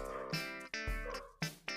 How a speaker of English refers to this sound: my dog is being loud. Can you hear my dog? I hope you can't hear my dog. Um, I feel like we have this problem a lot. My dogs just decide to be loud somewhere.